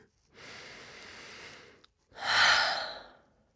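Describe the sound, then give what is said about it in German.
A slow, deep breath: a long, soft airy inhale, a brief pause, then a louder, fuller exhale that fades away. No talking. “Setzt vorher deine Kopfhörer auf, leg dein Handy auf den Tisch, hab freie Hände und lass uns atmen.”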